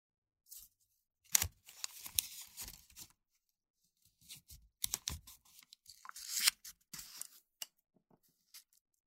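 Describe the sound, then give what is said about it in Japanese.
Curing (yojo) tape is pressed down and folded over, with crisp crackling, tearing-like rips and papery rustles coming in irregular bursts separated by short pauses, as torn paper edges are stuck to a sticky back and the tape that sticks out is folded outward. “紙の端を私の体の裏側のベトベトに貼り付ける。養生テープからはみ出した分を外側に折り曲げる。”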